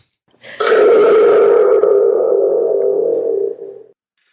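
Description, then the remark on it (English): A thunder tube is struck once, giving a loud, springy metallic rumble with a twangy echo that hums on for about three seconds before cutting off. No one speaks over it. “But no podcasts I listen to have thunder tubes.”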